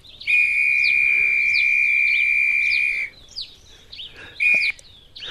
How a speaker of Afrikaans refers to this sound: Hy blaas twee keer hard op sy fluitjie en toe begin hy groot praat.